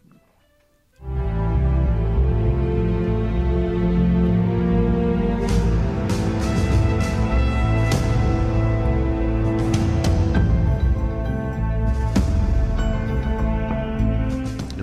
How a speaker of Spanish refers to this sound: la primera elección es eh, House of Cards, que suena así.